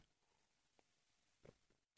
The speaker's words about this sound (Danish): Jeg skal lige have en sluk vand, undskyld.